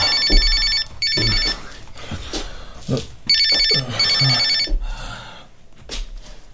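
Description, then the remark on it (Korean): A telephone rings in paired bursts of a bright, buzzing trill, two rings, then a pause, then two more, fairly loud over a low murmur of background noise. “아, 걱정돼서 전화했다.”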